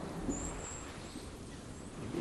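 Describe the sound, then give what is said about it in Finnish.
Thin, very high-pitched goldcrest calls from goldcrests moving within a mixed flock of tits, coming in a few faint, drawn-out bursts over a low, steady outdoor rumble, with no voices present. “Hippiäisiä liikkuu tuossa ja tässä taitaa olla enemmänkin tämmöinen tiaisten sekaparvi, johon hippiäiset kuuluu osana.”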